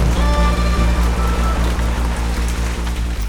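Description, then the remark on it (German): A loud, continuous roar of a stormy sea with towering waves and heavy pouring rain, heard aboard a sailing ship tossed back and forth, with a deep droning rumble underneath and faint regular ticking. No one speaks. “Der Himmel pechschwarz. Die Wellen haushoch. Der Regen wie aus Eimern.”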